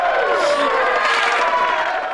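A short burst of crowd cheering and applause, with overlapping excited voices whooping and shouting over a steady wash of clapping, loud and sustained throughout.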